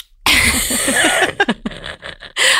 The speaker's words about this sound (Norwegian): Oi, beklager, jeg har sånn kolshoste. Det er Men, så fascinerende at du hoster.